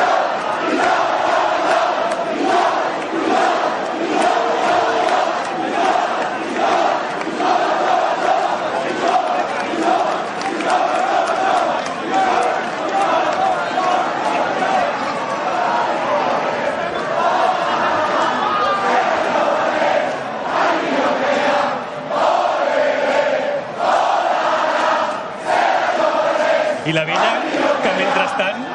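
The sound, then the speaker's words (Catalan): A large crowd chants together continuously at a castells (human tower) event in Catalonia, many voices sustaining a loud, steady, sung rhythm with a strong mid-pitched tone throughout, no single voice standing out. “Estan ja col·locats a lloc i esperant que els altres acabin els càntics, no?”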